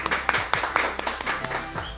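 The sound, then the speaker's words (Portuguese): A group applauding people who are there for the first time, with sharp claps landing in a fairly steady rhythm over a continuous wash of hand noise, about two seconds long at moderate volume. “Palmas para quem é pela primeira vez. Aplausos”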